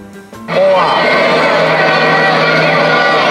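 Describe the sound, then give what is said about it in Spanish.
A fan at a stadium abruptly bursts into loud, sustained, angry shouting at broadcasters, his strained voice raised over a noisy crowd backdrop that fills the rest of the moment. “Pues, eh, sí, esta persona que está gritando de verdad sí lo dijo con una euforia.”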